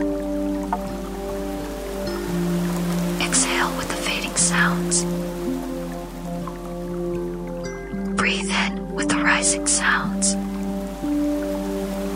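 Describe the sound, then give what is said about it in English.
Soft, steady gentle rain patters in the background with soothing street sounds beneath sustained, mellow music, with a few brief swells of heavier splashing hiss that rise and fade. “Immerse yourself in the tranquil embrace of gentle rain, soothing street sounds, and mellow music”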